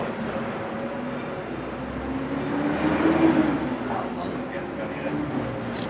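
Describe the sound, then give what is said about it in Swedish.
A bus drives past, its low engine rumble and whine swelling to a peak midway through before easing off again, a steady drone filling the whole stretch. “Bussen åker förbi och stör.”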